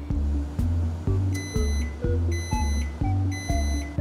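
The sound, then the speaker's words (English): A microwave oven beeps three times as it finishes making popcorn, evenly spaced about a second apart, each tone clear and bright over a loud, rhythmically pulsing low electrical buzz that fills the whole recording. “Did I just hear the microwave oven? Oh, good. My popcorn's done.”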